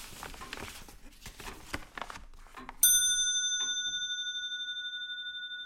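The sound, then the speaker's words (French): The great astronomical pendulum clock by the engineer Passement, whose mechanism of 120 wheels links the movement of the planets to the second, ticks and whirs with mechanical clicks, then a single bright chime strikes and rings on, slowly fading with a gentle pulsing shimmer. “la grande pendule astronomique de l'ingénieur Passement restitue de façon spectaculaire la somme des savoirs de l'époque.”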